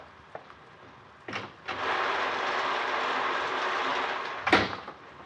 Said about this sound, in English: Is the rain letting up a little, or am I just getting used to it? It doesn't sound as bad as it did.